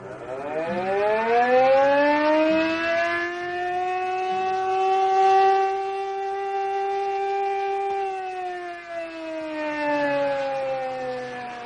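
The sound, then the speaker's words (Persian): A loud emergency alarm siren wails steadily at the Shahrokhi air base in Hamadan, its pitch rising, holding high, then dipping and climbing again in a long sweeping cycle, with no voices present. “تو پایگاه هوای شاهروخی همه چیز آروم و ساکته و خلبان عزیزخانی هم یه شب مثل همه شبای قبلش تو آماده باش نشسته و داره کتابش میخونه که ناگهان آلارم وضعیت اضطراری به صدا در میاد”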